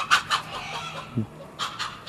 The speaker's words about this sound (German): Bienen, Hühner, die sich gerade melden und auch einen Hahn, der sich dann auch gleich meldet, weil er jetzt dem einen Huhn hinterhergeht.